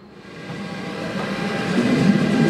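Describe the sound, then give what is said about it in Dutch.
A train with a mixed assortment of carriages rumbles past, its broad low roar swelling steadily louder over a couple of seconds, with faint wheel clatter and no voices. “Ja, die gaat naar, deze gaat waarschijnlijk naar Wenen. Bonte verzameling van wagons.”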